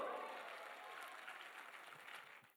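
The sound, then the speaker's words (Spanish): A crowd gives a loud round of applause for Mexico, clapping steadily in a dense wash that holds fairly even for a couple of seconds before tapering off quickly at the end. “Un aplauso fuerte a México.”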